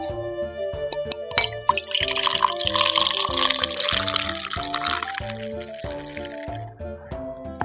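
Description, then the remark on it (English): Freshly opened beer pours into a glass, a rushing, fizzy splash that swells for a few seconds and then settles into soft bubbling, with steady tonal background music underneath. “All right, go ahead and pour it. I'm gonna put my mic right here.”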